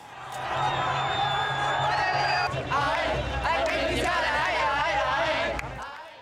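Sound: crowd celebrating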